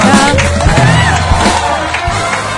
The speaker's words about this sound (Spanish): Sumémonos todos a ofrecer un aplauso fuerte por esta este